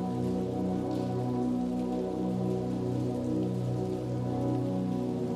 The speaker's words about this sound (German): mit allen Sinnen berauscht, plätschert der erst noch unangenehme Regenfall wie ein brausender Applaus an uns vorbei und heißt uns auf unserer heutigen Reise willkommen.